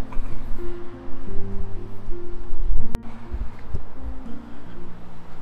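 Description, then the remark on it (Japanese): Busy street traffic on Komazawa-dori, recorded while walking toward Ebisu, fills the scene with a steady, loud roar and droning engine hums from passing cars, broken briefly by one sharp click partway through; no one speaks. “えー、恵比寿に行ってきますはい今えー、駒沢通りをまっすぐ歩いておりますもしかしたら車の音が結構入ってしまってるかもしれないのですがすいません”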